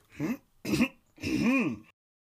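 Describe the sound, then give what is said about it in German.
A man clears his throat three times in quick succession, the last one longer and drawn out, fairly loud with no talking. “Ich zünde mir eine Pfeife an, räuspere mich”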